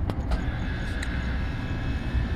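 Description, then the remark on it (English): An air conditioning unit kicks on at night and drones steadily, a constant low rumble with a broad airy hiss, a couple of faint ticks early on, and no voices. “Yeah, as you can hear, the air conditioning kicks on, but hey, just part of the noises of the night.”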